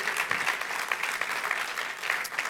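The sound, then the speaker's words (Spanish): An audience applauds the Lord steadily, a dense wash of many hands clapping at an even level for a few seconds with no voices over it. “Apláudele, cuando le vayas a aplaudir, apláudele al Señor.”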